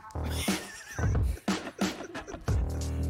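A chair creaks in a series of loud, drawn-out squeaky groans, repeating in uneven bursts over a few seconds, with no one talking.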